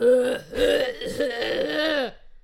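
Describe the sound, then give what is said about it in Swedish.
A voice imitates a man's loud, drawn-out throat clearing, a gravelly, voiced rasp lasting about two seconds with a few choppy pulses before trailing off, fairly loud. “Här, typ när de ska harkla sig liksom.”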